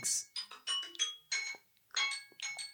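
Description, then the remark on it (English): A phone timer alarm chimes in quick bursts of bright, bell-like tones, repeating a short melodic pattern with brief gaps, clear with no talking over it. “yeah, oh, the timer went off on my phone.”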